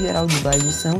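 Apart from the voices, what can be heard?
cash register sound effect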